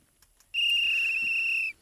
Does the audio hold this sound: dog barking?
no